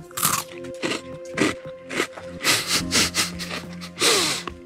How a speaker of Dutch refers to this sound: Je hebt het misschien herkend. Ik had zo net een speculoosje van Lotus. We mogen daar best trots op zijn, want het bedrijf dat de Biscoff maakt, de merknaam van speculoos, komt uit het Oost-Vlaamse Lembeke.